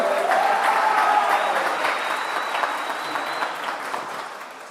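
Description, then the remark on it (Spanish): A church audience applauds a couple's 12th wedding anniversary, a dense wash of many hands clapping at once, loud at first and gradually tapering off, with a few faint voices and whoops mixed in. “Hoy cumplimos 12 años de casados, así que si nos quieren dar un aplauso.”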